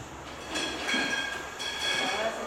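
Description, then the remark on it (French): Machinery on a bottle labeling line in a warehouse runs steadily, a continuous mechanical drone with high whining tones that swell slightly partway through, at moderate loudness and with no one talking. “c'est l'entrepôt avec effectivement la, la chaîne d'étiquetage.”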